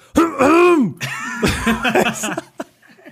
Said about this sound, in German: und ich will und ich will mich halt so räuspern kurz, dass dieser Frosch weg ist, dass ich nicht gleich am Anfang mich blamier